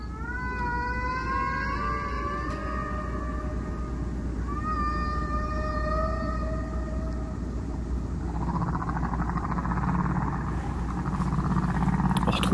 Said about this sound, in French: langue non humaine qui est en fait les baleines à bosse d'Hawaï. Ce qui, ironiquement, serait dingue que les extraterrestres viennent sur Terre pour écouter des baleines et pas nous quand même. Mais bon. On va l'écouter Face 1. Un solo de baleine.